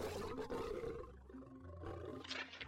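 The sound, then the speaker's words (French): A lion roars loudly, a deep rumbling growl that swells and rasps over a few seconds with no talking. “Tu savais que des lions avaient vécu en France”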